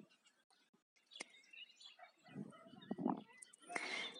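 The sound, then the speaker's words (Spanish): Faint, thin high-pitched chirps from a baby bird come in short bursts, with low murmuring voices underneath and a brighter, busier flurry of chirping near the end. “En fin, que este pajarito al final em, encontramos a su madre y se reencontraron, hasta su madre le dio de comer”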